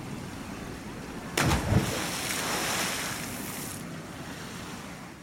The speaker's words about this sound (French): Tu observes les vagues qui se forment et se brisent autour de vous.